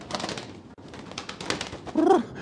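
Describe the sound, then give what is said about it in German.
Tilly, an intergalactic space carrier pigeon, gives a short, low, throaty coo near the end, heard over a steady rushing, breathy wind noise that fills the whole clip. No one speaks. “Ach ja, richtig, bei Tilly, der intergalaktischen Weltraumbrieftaube.”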